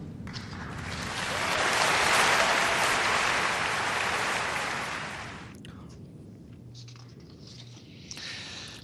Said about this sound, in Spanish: Y pues merecidísimo premio honorífico Sebas Oliva y de aquí te damos un aplauso.